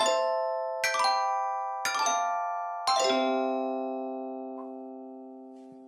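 A four-note electronic chime sound effect, played at the press of a button, plays in a descending sequence, each bright ringing tone struck in turn, with the final note sustaining and slowly fading out. No one speaks.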